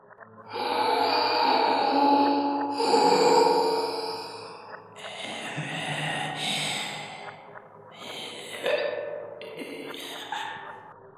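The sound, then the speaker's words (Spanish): Eerie, heavy breathing coming from an open drainage pipe fills the silence: a few long, rasping breaths in and out, fairly loud, with a hollow, drawn-out quality and no talking. “Esa respiración, ese sonido, yo ya lo había escuchado.”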